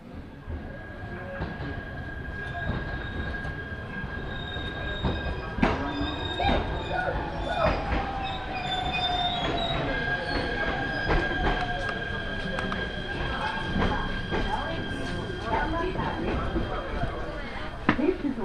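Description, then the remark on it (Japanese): A train pulls into a Japanese station, wheels squealing and clattering with a steady rumble and sharp metallic screeches throughout, while a Japanese station announcement plays over the noise, directing passengers via the stairs to the Naoetsu-bound train arriving at platform 2. “階段渡り2番乗り場到着の直江津行きご乗車ください。”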